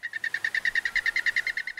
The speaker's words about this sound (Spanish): Se trata de la rana dorada dardo, o como se le conoce en el mundo de la ciencia, Filobates terribilis, Resulta que esta especie es considerada el vertebrado más tóxico de todo el planeta. Esta rana es endémica de la costa pacífica de Colombia,